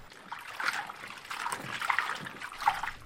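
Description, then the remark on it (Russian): Clear, icy-cold water trickles and burbles steadily over stones in a small stream, a continuous babble with bright splashy bursts rising and falling, no voices present. “Затем он снова набрал леденящей воды и, сделав глоток, встал.”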